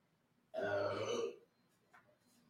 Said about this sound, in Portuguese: Quer ver uma legal? Quer ver uma legal? Alexa, arrote.